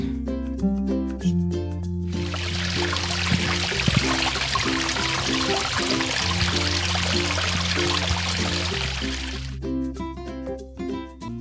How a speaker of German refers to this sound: Und jetzt stehen wir hier in so einem Seitentälchen an einem Bach. Es ist so schön. Es ist schön. Und die Vögel.